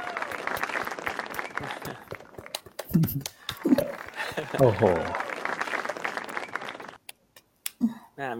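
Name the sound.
applause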